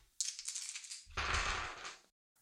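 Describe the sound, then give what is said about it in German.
A quick clatter of three dice being rolled: a brief rattle, then a louder, fuller burst of tumbling and clicking for about a second before it stops, with no voices. “Es gibt drei Bereiche, du würfelst dreimal mit drei Würfel. Oder ich würfel für dich.”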